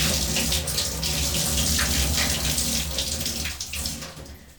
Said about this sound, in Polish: Tyle jest wody z suszenia pościeli pojemnik opróżniony.